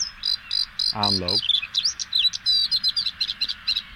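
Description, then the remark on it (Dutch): A bluethroat sings a rapid, high-pitched run of buzzy, cricket-like trills and rolling notes, fairly loud. A brief spoken word breaks in early on. “Ja, dus hij heeft allemaal van die supersonische trillers en rollertjes. Dus dat, dat is eh, onderdeel van de zang.”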